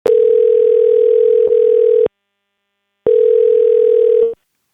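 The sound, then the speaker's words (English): A steady, buzzy telephone dial tone sounds loudly in two long stretches, about two seconds and just over one second, separated by a brief silence, as a call is placed to a friend. No one speaks. “This is a new segment of the podcast, um, one in which we do exactly what the title says, and that is phone a friend and ask them what they've been watching.”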